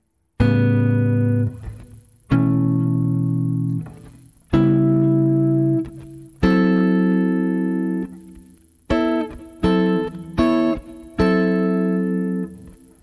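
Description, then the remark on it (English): An acoustic guitar rings out a little A7 chord shape built in fives, strummed about eight times: four slow, sustained chords followed by a quicker cluster of shorter strums, clear with no talking. “So this is a, believe it or not, a little A7 chord, but it's built in like fives, right?”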